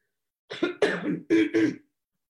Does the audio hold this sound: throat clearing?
yes